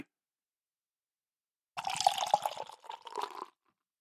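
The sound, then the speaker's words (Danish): A dark, black liquid is poured into a container, a splashy, gurgling stream lasting under two seconds, briefly unsteady near the end before stopping. No voices. “Så prøver jeg at se, om jeg kan hælde op, uden at spille alt for meget.”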